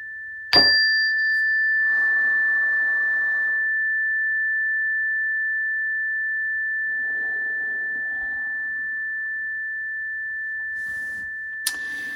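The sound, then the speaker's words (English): A meditation chime is struck once and rings out with a clear, pure sustained tone that slowly fades over many seconds, with a soft second strike near the end. “All right, so again, welcome, and uh, we'll let that chime just ring out, and you can kind of listen to that instead of me if you'd like, but it's all good.”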